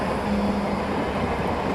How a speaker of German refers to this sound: In Frankfurt-Sachsenhausen an der Schweizer Straße fährt eine ziemlich leere Straßenbahn Richtung Offenbach.